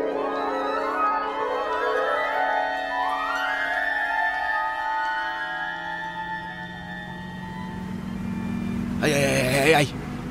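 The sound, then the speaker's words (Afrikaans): A large 50-ton mining truck drives along, approaching Lensburg, its heavy engine droning and whining upward as it gains speed, with a steady low rumble and a brief loud rushing burst near the end. “Hulle sal tog nie op die myn trok skiet nie.”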